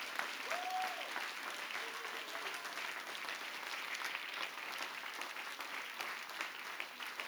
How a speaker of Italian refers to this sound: Fai un applauso più forte per Gesù.